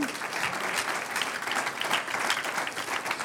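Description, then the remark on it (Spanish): A church audience claps steadily as applause to the Lord, a dense, even patter of many hands with no break for a few seconds. “Un aplauso al Señor.”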